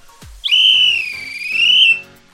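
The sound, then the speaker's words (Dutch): A single long, shrill, loud blast on a whistle, holding a high tone that wavers slightly in pitch for about a second and a half before cutting off. “En luister ook even naar het fluitje”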